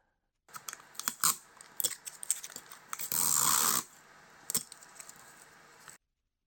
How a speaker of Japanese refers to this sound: テープカッターでテープ切ろうと。やっぱこういう生活にね、根ざしたのがいいですね。